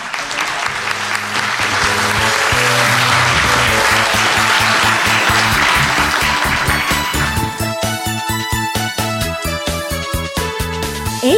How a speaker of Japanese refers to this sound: 大きな拍手でお送りください。